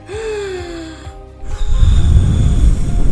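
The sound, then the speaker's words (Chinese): A storyteller's voice imitates the big bad wolf blowing hard at the three little pigs' red brick house: a sharp gasping intake of breath, then a long, loud, rushing blow of breathy air that keeps going to the end. “大野狼用力的吹吹吹，可是这间红砖屋纹风不动的啊。”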